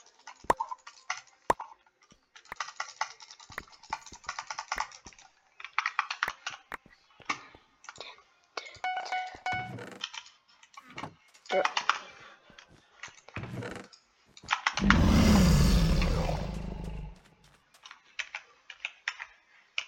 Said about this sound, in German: Übrigens, schreibt mal in die Kommentare, ob euch Tastaturgeklacker und Mausgeklicke stört. Ich finde das ja immer ganz geil, aber manche mögen es nicht.